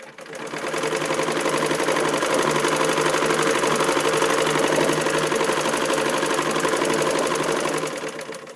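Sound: sewing machine running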